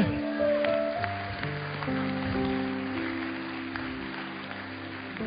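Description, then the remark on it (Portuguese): An audience applauds God steadily for about five seconds during a church sermon, a dense crackle of clapping over sustained low keyboard chords that shift underneath. “Dá para aplaudir a Deus aqui?”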